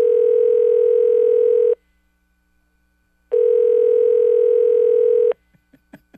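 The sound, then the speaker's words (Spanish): A telephone ringback tone sounds twice, each a steady two-second buzz separated by a pause, clear, followed by a few faint clicks as the line stays unanswered. “No, déjame llamarle un segundito.”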